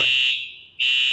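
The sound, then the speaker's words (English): A loud, piercing fire alarm shrieks, its high electronic tone cutting out briefly before blaring again in a repeating pattern. “That's a fire alarm.”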